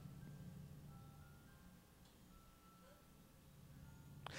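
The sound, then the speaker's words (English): A thin, tinkling ice cream truck jingle plays faintly over a steady low engine rumble, ending in a brief sharp noise burst. “Ice cream man?”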